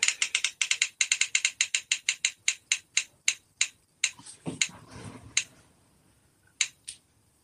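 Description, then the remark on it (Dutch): A spinning prize wheel clicks rapidly at first, the sharp ticks gradually spacing out and slowing until a few final clicks stop it, with a brief rustle partway through. “Eh, ik ga de spinner nu.”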